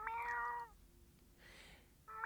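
A cat gives two loud meows: a drawn-out one at the start, then a short pause with soft background noise before a second meow that cuts off abruptly.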